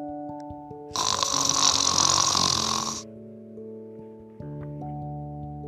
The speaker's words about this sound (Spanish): Dormida, roncaba sin ningún tipo de vacilaciones.